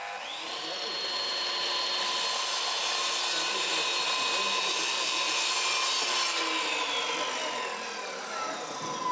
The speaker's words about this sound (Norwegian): Man må ha sterke armer for å legge materialene på sagen.